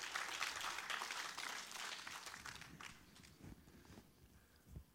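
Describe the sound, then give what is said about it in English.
An audience at a sermon bursts into loud applause, many hands clapping in a dense, steady wash that gradually thins and fades over several seconds, with a few scattered claps and low thumps at the end. “You can applaud, it's the truth.”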